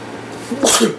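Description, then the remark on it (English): A single sharp sneeze bursts out, a quick breathy intake followed by a loud hissing blast, then fades within a second. “bless you, bless Thank you. you.”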